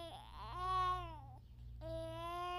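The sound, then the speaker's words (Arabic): A baby cries in two drawn-out, high wailing bursts separated by a short breath, fairly loud, with a steady low hum running underneath. “لا يملك الأطفال سوى البكاء”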